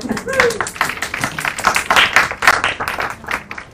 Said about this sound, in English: the pizza is uh, here, thank you to the Tiny Norwegian Chamber of Commerce. So a big applause for us.